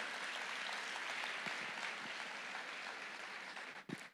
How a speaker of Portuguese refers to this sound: Quando a pessoa tem um encontro, aplauda ele, por favor, ele merece.